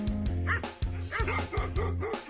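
dog barking

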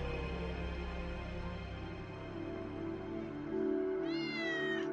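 cat meowing

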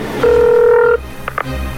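telephone call ringing

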